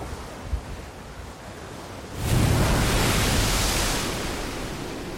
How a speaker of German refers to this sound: Es geht auf der einen Seite hoch, auf der anderen wieder runter. Rings um sie ist es düster. Es regnet in Strömen. Der Wind heult über den Ozean